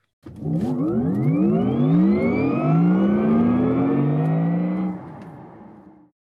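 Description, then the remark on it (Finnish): A car being taken for a test drive toward Tampere revs up loudly and pulls away, its pitch climbing steadily through a few gear changes before easing off and fading over about six seconds, with no voices. “Mutta pitemmittä puhetta, eiköhän lähetä nyt koeajamaan sitä autoa.”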